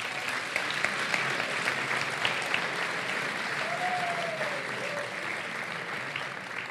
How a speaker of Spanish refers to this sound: Eh, tenemos los nominados …, … y …. Un aplauso a los nominados.